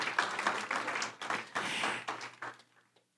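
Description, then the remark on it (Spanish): During a sermon, a crowd breaks into loud, dense applause to give glory to the Lord for a couple of seconds before it quickly dies away to near silence, with a steady low hum running underneath. “Dele gloria al Señor y un aplauso fuerte porque ahora estamos reconciliados con Él.”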